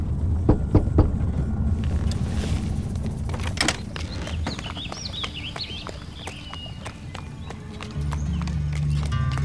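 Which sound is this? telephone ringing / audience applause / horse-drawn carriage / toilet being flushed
horse-drawn carriage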